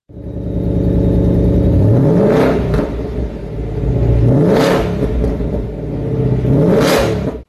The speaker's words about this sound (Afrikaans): Maar om dit vir julle te demonstreer, hierdie Ford waarin ek sit, het wel 'n supercharger, maar nie 'n turbo nie, so daai volle V8 klank kom agter by die uitlaate uit. Hoor net hoe klink dit.